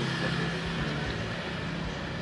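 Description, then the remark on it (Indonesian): Motorcycles rumble past outdoors at an ordinary coffee shop, a steady, droning engine noise filling the background without pause, with no talking over it. “maaf ya guys memang kita ada di outdoor kita ada di kopian biasa jadi suara wong wong wong wong wong motor itu”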